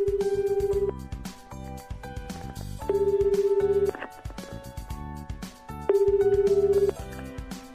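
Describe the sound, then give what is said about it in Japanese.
A phone ringback tone from a call to a mobile phone purrs three times, each steady buzzy burst lasting about a second with two-second gaps, clearly audible over soft background music. “携帯電話ですね、どうかしら、つながりましたね”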